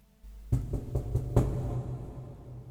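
A soft series of about five knocks on the door of a pink study, evenly spaced, over a low steady background hum, with no voices.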